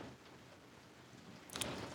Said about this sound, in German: Äh, übrigens, falls ihr euch wundert, das Rauschen im Hintergrund ist der Regen, der gerade hier richtig abgeht.